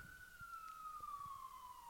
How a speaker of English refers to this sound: And the ambulance comes. Who's dying? Who's dying?